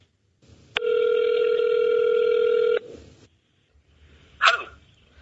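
A phone line rings out with one steady, buzzy ringback tone lasting about two seconds as an interviewer calls a former punk and co-owner of the store chain Normal, followed by a quiet pause and a brief sharp noise near the end.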